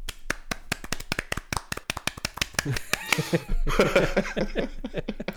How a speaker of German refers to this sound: Dazu ein bisschen Applaus, den ich jetzt gerne einspielen würde, aber ich habe technisch gerade nicht die Möglichkeit, mein Soundboard zu bedienen.